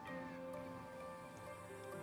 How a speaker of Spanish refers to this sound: eso que se oye pues mi gato. es negro.